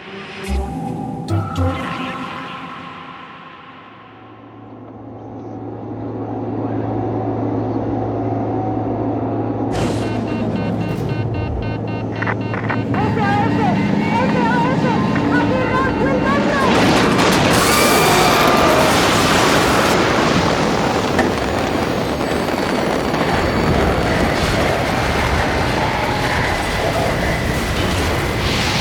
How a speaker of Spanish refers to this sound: Lo que acabas de escuchar es mi accidente de avioneta. El sonido de la última aventura de mi vida. Un revés que me sacudió en 1976 y cambiaría mi vejez para siempre.